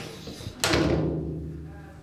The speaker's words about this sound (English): Oh, ooh, the echo. You hear the sounds? Do you hear them? Do you hear the footsteps? You hear the doors slam?